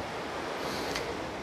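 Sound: ocean waves breaking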